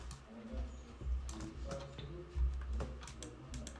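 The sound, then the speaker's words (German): Rapid, irregular clicking of a computer mouse and keyboard, fairly quiet, with crisp taps in quick bursts over a low steady hum. “Viel klickt. Viel geklickt.”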